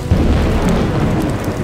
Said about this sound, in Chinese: 而且每当黑山妖怪又因为被困回黑暗世界的时候而生气时，天空就会乌云密布，甚至会闪电打雷，下起大雨。